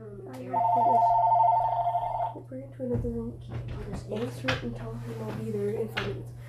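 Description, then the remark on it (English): A phone rings in the room with a steady electronic trill for about two seconds, clear, then people talk over a low constant hum. “The, our phone is ringing right now in the room.”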